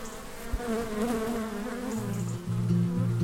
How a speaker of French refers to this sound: Pour commencer notre escapade au pays de Château-Giron, je vous emmène au rucher de la Vilaine. 150 ruches, plusieurs millions d'abeilles